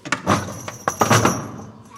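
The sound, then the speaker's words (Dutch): A fake door in a haunted castle attraction thumps and bounces back instead of opening, while iron bells rattle and jingle loudly, with a couple of sharp knocks amid the ringing that fades out after about a second and a half. “En de deur gaat niet open, maar hij bounce naar achter.”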